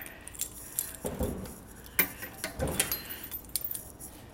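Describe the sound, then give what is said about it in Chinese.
A car being locked, recorded on a mobile phone: keys jangle and clink in several short bursts, with sharp metallic clicks and a brief high chirp, fairly quiet with no voices. “如果好的话，就可以让各位听听锁车的 ASMR。”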